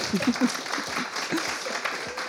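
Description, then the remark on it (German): A live audience at the Breminale Dezentrale cultural festival in Bremen applauds on stage. The clapping is dense and steady, filling the whole stretch at an even, moderate loudness, with a few faint voice fragments mixed in underneath. “Und wir haben hier heute auch Publikum dabei. Vielleicht hört man es im Hintergrund ein bisschen.”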